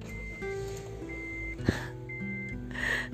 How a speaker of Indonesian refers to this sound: bentar ya gue mau nyalain mesin dulu nih biar gue nggak terlalu kepanasan